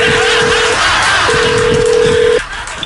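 A phone number being called, heard as two long, steady single-pitch tones separated by a brief gap, over a low background hiss.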